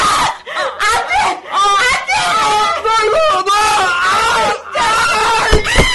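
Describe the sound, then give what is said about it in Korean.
Loud, frantic shrieking and screaming from overlapping voices, pitches wavering and sliding almost without pause, as a woman leaps onto a man's back and tears at his hair, intense throughout. “강주희는 괴성을 지르며 조상우의 머리카락을 쥐어 뜯었다.”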